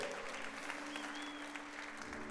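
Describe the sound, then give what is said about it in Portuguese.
An audience applauds the Lord steadily, a dense continuous patter of many hands clapping at an even loudness, with a faint sustained tone humming underneath throughout. “Pode aplaudir o Senhor, você começou.”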